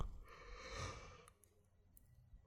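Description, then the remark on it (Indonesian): A drawn-out, breathy yawn from a sleepy speaker while recording, rising into a broad airy exhale for about a second before fading into quiet breathing. “Mungkin di sini doang kali ya podcaster adminnya ngantuk nguap.”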